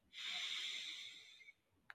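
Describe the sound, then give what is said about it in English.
A single long, deep breath drawn in during a guided breathing exercise, airy and hissing, swelling quickly and then fading over about a second and a half, with a brief click at the end. “please breathe in”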